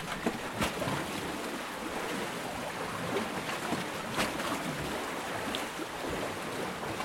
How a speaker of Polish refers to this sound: to akurat nagrywałem koło ujścia rzeki Dziwny, no ale to ogólnie przy falochronach tak jest, jak są te takie betonowe bloki. Te fale, które w nie uderzają, no tam bardzo charakterystycznie brzmią, bo gdzieś ta woda tam się przelewa wewnątrz